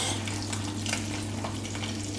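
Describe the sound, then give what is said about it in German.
Butter sizzles and bubbles in a hot pan, heated for frying fish skin-side down, with a steady, dense crackling hiss, scattered sharper pops over a low constant hum, with no talking. “So, und jetzt seht ihr, jetzt ist die Butter richtig schön blubberig.”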